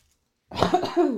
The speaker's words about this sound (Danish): Ej, jeg ødelagde lidt med hosten der.